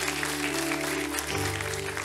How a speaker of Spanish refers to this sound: ¿Hay alguien que está acá que hoy día por primera vez quizás vino a nuestra casa? Que haya venido por primera vez. ¿Puede levantar su manito bien arriba? Le damos un fuerte aplauso de bienvenida. Gracias por venir.